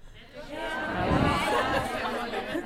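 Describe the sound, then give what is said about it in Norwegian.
An audience of many voices all calling out at once, each saying a sentence about how they are really doing, in a dense, overlapping babble that swells in the middle and stays fairly loud throughout, with no single speaker standing out. “Hvis alle roper samtidig, så går det bra.”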